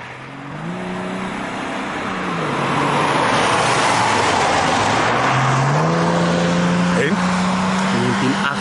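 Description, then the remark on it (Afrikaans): A 1993 BMW 325iS with a branch and a free-flow exhaust roars loudly, its engine note climbing in pitch through a couple of rising revs before settling into a sustained, throaty drone. “1993 BMW 325 iS met 'n branch en 'n free flow exhaust.”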